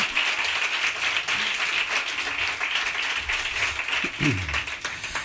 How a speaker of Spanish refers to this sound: Que a los guitarristas también se les aplaude, compañeros.